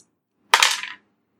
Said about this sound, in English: Uh, so what you're going to do is you're going to roll a d6 and your social dice, which is a d4.